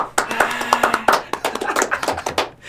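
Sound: brief applause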